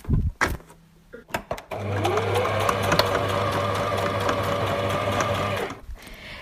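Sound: sewing machine stitching fabric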